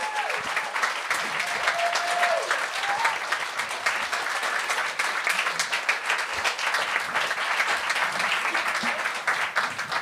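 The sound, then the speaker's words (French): An audience applauds steadily and loudly for the full stretch while a performer comes up to take the microphone, a dense wash of many hands clapping at once, with a few faint voices and a brief whistle-like tone near the start. “Et cher public, je vous demande d'applaudir jusqu'à temps que la personne prenne le micro.”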